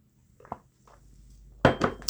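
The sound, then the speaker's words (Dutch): Someone takes a sip of water: a couple of soft clinks and small mouth sounds, then a louder rattle of a glass being handled and set down, with no talking. “Ik moet even een slokje water.”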